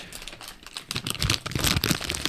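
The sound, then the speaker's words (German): A paper goodie bag holding Spekulatius biscuits is crinkled and rustled in bursts of dry, crackly noise, starting softly and growing louder and busier over about two seconds, with no voices. “Knister, Knister doch nochmal noch bitte mit deiner Wundertüte.”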